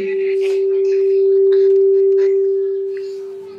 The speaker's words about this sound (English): Let us put the mic on this on this one because here there is I, uh, that echo. we can use this one. I think it's not going to do any echo.